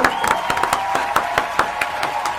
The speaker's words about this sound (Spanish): Así que un aplauso a Luisito, a los médicos, a todos, ¿no es cierto? muchas gracias.